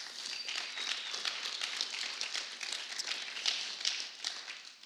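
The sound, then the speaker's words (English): A steady round of applause from a crowd celebrating four new donors to Phoenix Bibles, a dense patter of many hands clapping that holds fairly even for about five seconds before tapering slightly at the end. “Can we give all of that a round of applause?”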